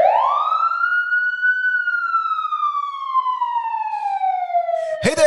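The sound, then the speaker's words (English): A loud siren wails alone, its tone sweeping up over the first second and a half, then slowly falling in one long, steady sustained howl before a brief burst cuts it off at the end. “It's time for an emergency podcast. Somebody hit those sirens.”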